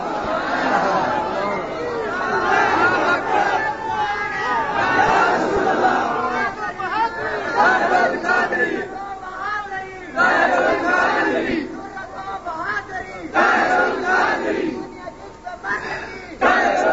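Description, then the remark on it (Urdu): A large crowd chants and shouts slogans together, a loud, dense mass of voices rising in repeated bursts with brief dips between them, continuous. “تسی وچ میرے نعرے نورے کوئی نہ لاؤ وچ میرے نعرے شارے کوئی نہ لاؤ”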